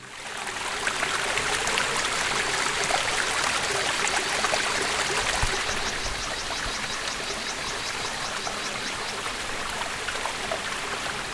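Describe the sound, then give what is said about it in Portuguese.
A gentle, steady trickle of low water spilling at a small waterfall during hot weather with no rain in recent days, a continuous babble with no voices, its hiss holding an even level throughout. “Aí galera, tá com tanto calor e nenhuma chuva nos últimos dias, havia pouca água.”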